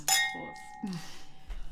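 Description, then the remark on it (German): A bright glass clink rings out, its tone lingering briefly, followed by softer handling and a faint swallow-like sound as a glass of plain, non-carbonated water is drunk. “Soll ihr noch ein Wasser sprudeln? Nö. Das hm. trinke ich mal pur jetzt.”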